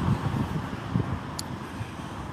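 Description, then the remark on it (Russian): Steady, rushing wind noise outdoors, with low buffeting gusts rumbling against the microphone and a faint hiss throughout, loud, with no voices. Strong wind, recorded while walking. “Вот как, как я могу быть свободным, когда вот ветер сильно шумит, и я ничего не могу с ним сделать.”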